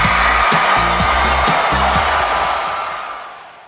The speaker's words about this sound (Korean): 진짜 이렇게 음. 진짜 네. 이큰 함성 소리까지 넣어가지고